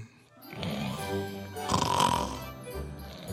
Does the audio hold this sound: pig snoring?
yes